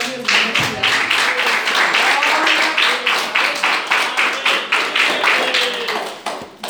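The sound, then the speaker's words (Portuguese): An audience claps loudly and steadily for the Lord for several seconds, the dense applause pulsing in a loose rhythm before tapering off near the end, with faint voices mixed in beneath the clapping. “palmas para o de Senhor.”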